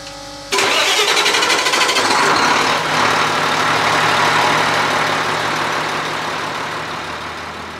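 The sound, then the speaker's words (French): The first of a ship's engines fires up abruptly after a quiet moment, roaring loud, then settling into a steady, heavy mechanical rumble with a deep low hum. “Et là, je suis en train de progresser les moteurs, le premier moteur avant de le démarrer.”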